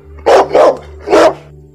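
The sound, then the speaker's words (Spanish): A dog barks three times, loud and sharp: two quick barks, a short pause, then one more, over a faint steady hum with no one talking. “¿No, perro?”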